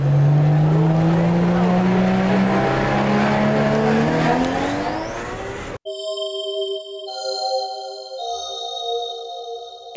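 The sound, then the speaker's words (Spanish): The engine of a latest-model convertible sports car, aggressive in design, roars loudly as it leaves a car dealership, its pitch climbing as it revs and accelerates for about six seconds, then cuts off abruptly to a steady sustained tonal sound. “con un último modelo de deportivo descapotable, absolutamente agresivo en su diseño.”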